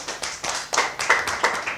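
Brief audience applause seeing off a speaker after her talk: a sparse run of sharp hand claps, roughly seven or eight in under two seconds, uneven in rhythm and moderately loud, with no voices over them.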